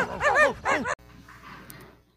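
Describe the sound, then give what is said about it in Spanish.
Two quick rounds of loud dog barking ring out over a song, then stop abruptly as the music carries on softly underneath. “Volveremos a cambiar, mover la cola y ladrar.”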